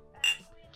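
A single quick clink of beer bottles tapping together in a toast, bright, a brief knock against a quiet background.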